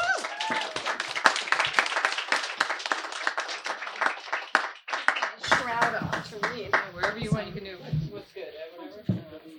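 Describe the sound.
A crowd claps loudly in a dense, rapid patter for about five seconds, then the clapping thins out as whoops, cheers and excited voices take over.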